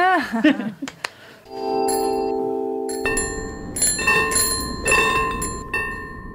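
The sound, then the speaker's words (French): An old-fashioned bicycle bell rings out loud: a sustained metallic ring, then several quick repeated dings over a noisy background, after a brief voice at the start. “On dirait un tram, mais ce n'est pas un tram, c'est une sonnette old school.”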